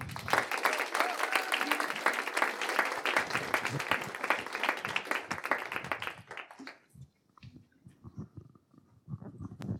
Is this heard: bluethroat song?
no